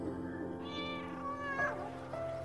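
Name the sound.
cat meowing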